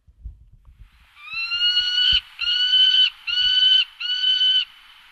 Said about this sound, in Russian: Давайте Сапсана сейчас послушаем, тоже есть такая возможность.